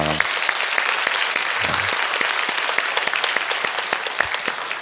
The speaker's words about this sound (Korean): 아, 오늘 다섯째 날인데 아, 우리의 찬양과 또 예배를 통하여서 영광 받으신 우리 하나님 앞에 영광의 박수 올려드립니다.